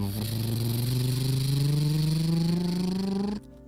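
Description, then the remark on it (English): A helicopter taking off from the ground: a loud, steady engine whine climbs gradually in pitch for about three seconds, then cuts off abruptly, leaving only a faint hiss. “As Judah took off the helicopter from the ground,”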